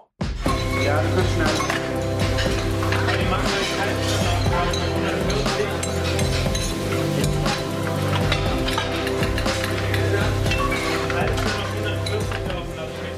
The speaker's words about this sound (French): Des bruits métalliques, des claquements de fouet et des raclures de casseroles sur la plaque de mijotage. Des oui chefs, des bruits silencieux, une pression agréable et un chef, un chef d'orchestre, Monsieur Bernard Loiseau.